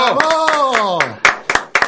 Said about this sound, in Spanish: Muy bien, un aplauso.